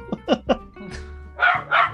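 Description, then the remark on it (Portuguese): A dog barks angrily: a quick run of three short, sharp barks, a brief pause, then two louder, harsher barks close together. “O cachorro tá bravo.”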